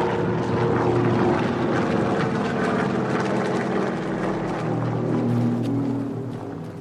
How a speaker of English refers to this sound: 1938, the people of Guangdong province in China near the southern coast noticed a low droning sound in the air. It took minutes to realize the sound was not coming from ships passing in the harbor. It was coming from the enemy planes of the Japanese.